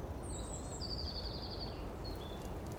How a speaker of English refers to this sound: As you walk through a forest, you hear birds singing and wind blowing through the trees.